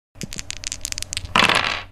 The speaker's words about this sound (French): Ça permet de relancer 3 dés.